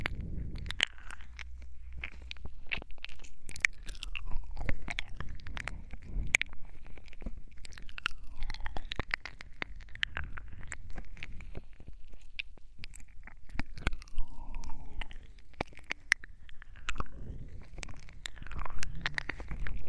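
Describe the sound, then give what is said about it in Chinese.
Continuous wet, sticky mouth sounds like ear licking: rapid clicks, smacks and slurps with squishy texture, steady and fairly soft throughout, no speech. “有的人在打团的时候，自己的耳朵却在被舌头绞着呢，这样还怎么能好好打团呀？”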